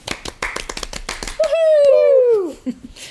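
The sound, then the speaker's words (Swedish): A short burst of hand clapping, a dozen or so quick, slightly uneven claps, followed by a long voice-like tone sliding downward in pitch. “Det, det är ju värt en applåd, mm.”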